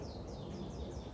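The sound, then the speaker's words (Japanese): Birds chirp outdoors in a quick run of repeated high, downward-sliding calls, fairly faint over a steady rumble of wind, with an airplane also flying, and no one speaking. “あすげえ鳥鳴いてる聞こえるあのね鳥も鳴いてるし飛行機も飛んでるしすごいですね風は吹いてるし”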